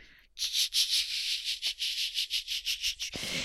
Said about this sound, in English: And then she took the little jar and she scrubbed it. Go ahead, scrub it hard. What's the sound effects?